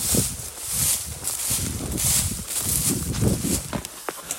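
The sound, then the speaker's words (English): Hurried, uneven footsteps scuffing and crunching over rough ground as a person alone climbs a hill overlooking the Bering Sea in Alaska at 11 o'clock at night in July, heading for high ground after a tsunami warning, with a steady rustle of brush and gear throughout and no talking. “Okay, climbing up this hill.”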